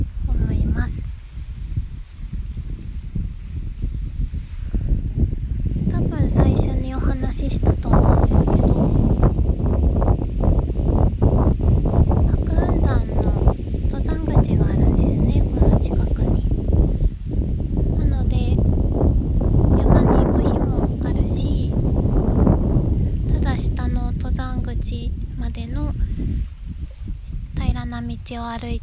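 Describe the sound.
Strong wind at the lakeside of Lake Shikaribetsu buffets the microphone in a continuous low roar that rumbles and surges throughout, while a person keeps talking over it outdoors in an open spot, their voice partly swamped by the gusts.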